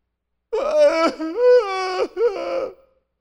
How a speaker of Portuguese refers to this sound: Tinha uma pessoa dentro do estômago dela. E se podia ouvir o homem gemendo.